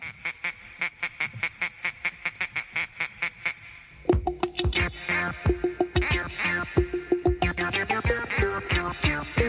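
A rapid, evenly spaced series of nasal duck quacks opens alone, then a bouncy, upbeat novelty tune kicks in, with quacks continuing in rhythm alongside the loud music.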